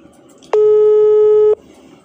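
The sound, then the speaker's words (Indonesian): A single steady telephone busy tone on an unanswered call sounds for about one second, loud and clear against a quiet background hum, then cuts off abruptly. “kalau mama agak susah ditelepon kayaknya lagi ngasih makan musang”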